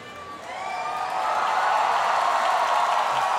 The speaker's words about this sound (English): That wonderful cheer is because the house lights just went off. The people, there they are.